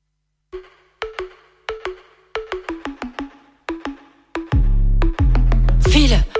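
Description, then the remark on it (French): A French female rap track's intro opens with a run of bright, plucked melodic notes in an uneven rhythm, then a loud, booming bass beat crashes in near the end. No vocals yet. “on va écouter un morceau qui s'appelle …”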